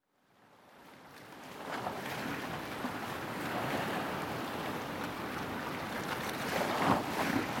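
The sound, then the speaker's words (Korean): A steady, broad rush of ocean surf fills the scene, swelling in from silence and holding a dense wash of water noise with a brief louder surge near the end, wind buffeting in the background. “그리고 방금 전까지 덮쳐오던 파도가 다정하게 반겨주고 나는 그 위에 올라선다.”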